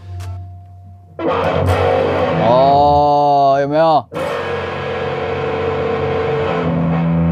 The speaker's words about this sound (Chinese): 但既然都拿跟大家练了，我就稍微让大家听一下 Slash 的签名琴听起来是什么感觉。